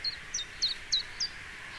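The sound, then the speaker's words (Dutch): A chiffchaff sings a steady series of five short, high notes in an even alternating rhythm, clear over a soft background hiss. “Het geluid van de lente vind ik toch weer chif-chaf fantastisch.”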